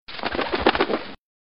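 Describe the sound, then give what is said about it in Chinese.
A sudden flurry of crows' wings flapping as the birds burst from branches at the Censorate (Yushitai), startled by a stone box falling in a prison cell. A rapid, fluttering rustle lasting about a second before cutting off. No voices. “一间牢房里传出石盒落地的声响，枝头的乌鸦都四散飞走了。”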